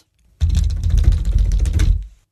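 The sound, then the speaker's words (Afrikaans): Rapid, steady tapping with a deep, thumpy, drum-like body and sharp clicky edges, running for about a second and a half, loud and alone with no voices. “Dit klink soos 'n trom.”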